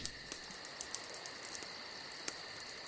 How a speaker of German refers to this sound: Aber das ist Lagerfeuer. Das ist Lagerfeuer, das ist jetzt nicht.